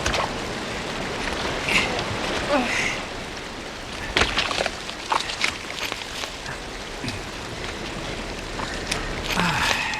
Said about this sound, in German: Gleich hier neben dem Wasserfall.